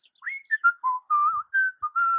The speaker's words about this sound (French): je chantais des louanges en sifflant.